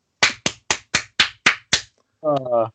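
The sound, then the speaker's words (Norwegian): Seven sharp hand claps in a quick, steady rhythm, like a short burst of applause from one person, followed by a brief spoken voice. “Applaus for faen.”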